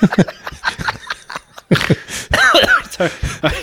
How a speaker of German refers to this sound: kurz husten.